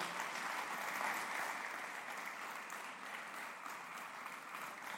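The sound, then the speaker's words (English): A room full of people claps steadily to welcome guests one morning, a dense, continuous wash of applause that holds at an even level for several seconds without anyone speaking. “So, why don't you guys help me in welcoming our friends this morning?”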